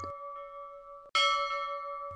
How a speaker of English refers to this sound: As it sailed down the Maumee, a docked freighter, the USS Toledo, tolled her bell 29 times.